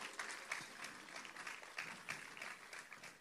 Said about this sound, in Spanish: quiero pedir un aplauso para ellos, hermano, un aplauso fuerte.